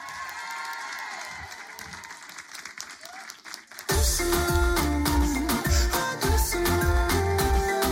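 An audience claps steadily in a dense crackling wash, then about halfway loud music with a heavy bass beat bursts in and plays over the fading applause.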